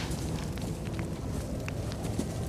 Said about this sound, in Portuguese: Uma fogueira antes da batalha.